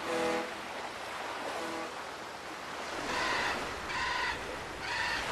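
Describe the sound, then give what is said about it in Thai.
A crow caws about five times in harsh, evenly spaced calls, the last three louder and closer together, over a steady rushing background like ocean surf. “ครั้งนั้นพ่อค้าพากันเล่นเรือไปยังมหาสมุทรโดยเอากาบอกทิศไปด้วย”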